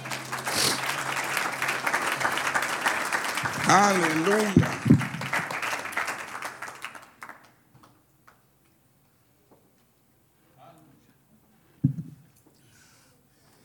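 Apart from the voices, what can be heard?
audience applause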